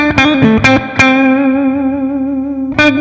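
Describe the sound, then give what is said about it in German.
An electric guitar played through an effects pedal with the compressor switched off: a few sharp picked attacks, then one chord left ringing with sustained harmonics before a final strum, heard alone. “Das ist jetzt aus, Henry? Das ist aus.”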